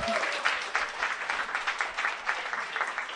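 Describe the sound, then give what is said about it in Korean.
An audience at a prize giveaway claps for a winner from Busan, steadily for about three seconds, a dense crackling wash of many hands at a fairly even volume with small surges, with no voices standing out. “박수.”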